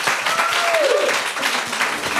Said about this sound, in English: Thank you so much to you all. Can we get a, round, a round of applause for our amazing panelists?